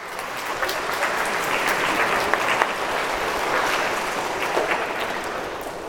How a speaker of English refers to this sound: There you go. Good job. Let's give her a round of applause.